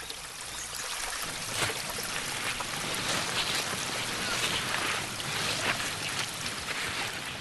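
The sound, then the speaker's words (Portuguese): Steady rushing of river water flowing continuously near the royal palace in Egypt, an even wash of hissing and bubbling with no pauses, filling the whole scene without voices. “Mas por que temos que vir até ao rio?”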